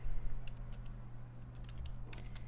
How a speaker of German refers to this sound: Man hört mich jetzt wieder tippen, ne? Mm, ja, sehr sogar.